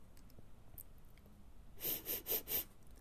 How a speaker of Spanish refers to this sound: De pronto, se escucha a alguien que olfatea. ¿Quién está ahí? pregunta Planeta.